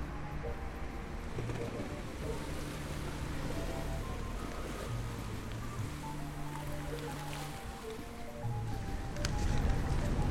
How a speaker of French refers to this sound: Un bateau au port, les voiles en berne, l'équipage qui déserte le dimanche, le vent qui souffle la nuit. Brève émotion d'un soir d'escale.